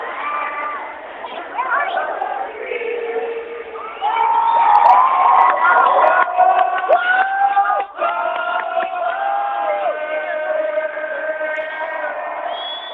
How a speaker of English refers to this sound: I think you're seeing a huge sense of relief, I think, at Ground Zero. I think you're seeing a huge sense of, frankly, joy. Right now, people are singing the national anthem. It's an incredible scene. I'll just hold the phone out.